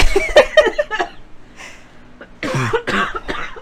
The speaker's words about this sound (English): she's coughing. It's okay. We'll just hang out while she's getting just dying, guys.